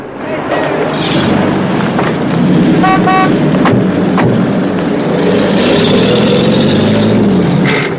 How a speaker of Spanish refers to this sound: Se dirigen a un automóvil que les aguarda. Montan y se alejan.